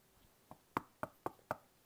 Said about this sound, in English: So I, I looked out the window and kept on watching the scene unfold and I saw Kathy walk up the driveway and knock on the door like